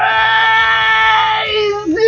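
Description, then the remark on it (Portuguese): A man lets out a long, loud, strained scream with a harsh, raspy tone, holding steady before his pitch wavers and drops near the end. “É só porque tu falou que eu tava desanimado e comecei a gritar.”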